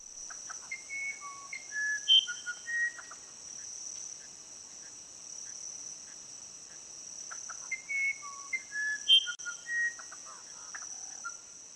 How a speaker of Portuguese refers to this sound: É costume aqui da Amazônia dizer que o irapuru é um pássaro sagrado e que seu canto traz muita sorte para quem ouve. Então, vamos ouvir mais uma vez.